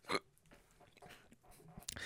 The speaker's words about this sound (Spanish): El hipo otra vez.